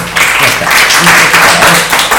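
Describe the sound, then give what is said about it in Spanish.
A burst of steady applause, many hands clapping in a dense, continuous wash of noise that stays loud and even throughout, with a faint murmur of voices underneath. “Pues muy bien, mira, pues le vamos a dar un aplauso porque hoy ya he aprendido algo yo.”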